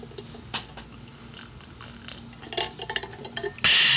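Someone sips cool water from a small glass at 1 p.m.: a few small glassy clicks and soft wet slurps scattered over a few seconds, ending in a louder breathy rush. No one speaks.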